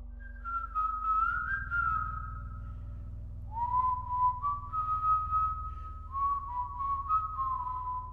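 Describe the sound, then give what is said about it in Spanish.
Eerie whistling just outside a house drifts in three long, wavering phrases, each sliding slightly in pitch, over a steady low rumble in the background. No one speaks. “El silbido estaba justo fuera de nuestra casa.”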